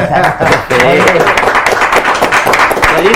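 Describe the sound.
Steady audience applause, a dense crackle of many hands clapping at once, runs the whole time while voices talk and call out over it.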